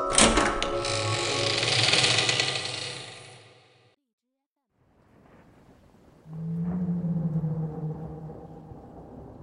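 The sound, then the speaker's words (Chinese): A burst of dense, hissy noise gives way to a near-silent pause, then whale calls, presented as whales appearing for days in the sky over the city, rise as low, drawn-out moaning tones with a fainter higher layer, steady and mournful for several seconds. “下面来看最新消息：我市上空连日出现鲸鱼奇观，专家称近期洪涝天气与此次鲸鱼奇观会有关联。”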